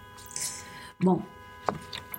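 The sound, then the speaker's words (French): A car horn outside blares continuously in the background, a steady droning tone held throughout, muffled, while a person speaks briefly over it. “Ah, il y a ah, les klaxons. Un klaxon.”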